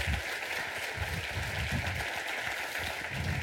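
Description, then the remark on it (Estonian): Steady applause from an audience welcoming a speaker onto the stage at an event, a dense, continuous patter of many hands clapping at a consistent level throughout, with no voices standing out. “aitäh aplausi eest.”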